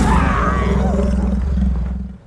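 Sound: tiger roar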